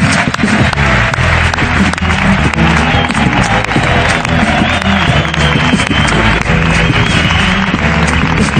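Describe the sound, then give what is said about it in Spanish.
Loud, sustained applause from a large audience for tennis players Pablo Carreño and Marcel Granollers, dense continuous clapping filling the whole stretch with a faint murmur of crowd voices mixed in. “Un aplauso para Pablo Carreño y Marcel Granollers.”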